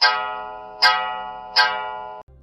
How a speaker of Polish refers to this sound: W salonie właśnie odezwał się mój ulubiony zegar,